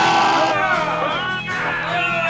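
Loud, sustained shouting fills the whole moment after a countdown of 3, 2, 1, raw voices yelling together at full strength with wavering pitch, intense, without any clear words.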